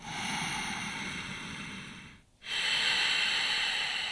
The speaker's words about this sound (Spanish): De hecho, esto, esta respiración que se llama respiración victoriosa, Ujjayi Pranayama, te permite modular la respiración y no te cansas.